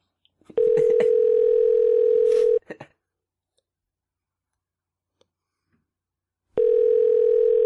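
A steady, mid-pitched telephone tone sounds for about two seconds with a few clicks over it while a call is placed to ask about buying records. It falls silent for several seconds, then returns loud and unbroken at the end.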